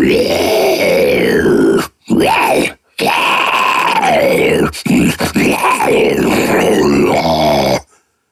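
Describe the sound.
A voice imitates a zombie with loud, gravelly growls and drawn-out groans, pitch swooping up and down across several bursts separated by brief silences, with no ordinary speech.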